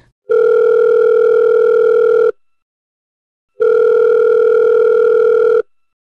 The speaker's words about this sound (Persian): موبایلم رو برداشتم و به خونه زنگ زدم